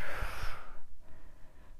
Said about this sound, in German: wirklich die, die erste Hilfemaßnahme ist immer das tiefe Atmen, also erstmal ausatmen, den ganzen Stress